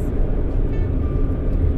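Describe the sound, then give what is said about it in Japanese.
Steady low rumble of a car interior while being driven home, a continuous engine and road drone with a faint whine, heard from inside the cabin, on a sunny late-August day of about 25°C. “今私ですねお家に帰ってくるおお家に帰ろうとして車をね走らせているところです”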